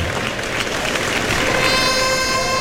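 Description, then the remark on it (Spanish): A large bullring crowd applauds the picador as he leaves after finishing his work with the bull, in a dense, steady ovation that stays loud throughout, with a sustained high tone, like music or whistling, rising faintly over the clapping midway through. “Y se lleva una ovación, quinta, ¿eh?”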